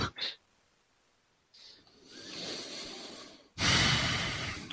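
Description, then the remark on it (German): Close, breathy airflow right on the microphone: a quick puff, then a longer rising exhale and a final loud, rushing breath that fills the end, with no talking. “Ich höre da jemanden atmen.”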